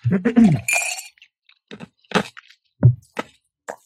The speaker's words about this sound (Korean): 얼음을 씹어 먹고 있다가.